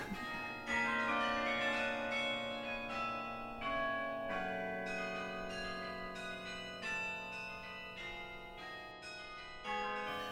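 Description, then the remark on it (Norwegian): The city hall tower's carillon bells ring out a steady tune, struck notes following one another with long, shimmering overlapping decays. The chiming is fairly loud and continuous, with no voices. “Og det gir meg noe at folk sier at hvis jeg hører Rådhusklokkene, så føler jeg at jeg er hjemme.”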